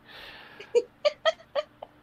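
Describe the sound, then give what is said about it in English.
A pet cat named Clover meows in a quick series of about five short, clipped calls, fairly loud, with no one talking over them. “Um, my cat is psychic, apparently.”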